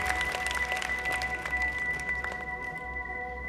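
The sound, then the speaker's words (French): The royal court at the Louvre applauds the king steadily, dense overlapping claps with a faint sustained hum beneath and no voices standing out. “Molière entend les murmures de joie et les cris de soulagement de ses camarades, tandis que la cour applaudit le roi”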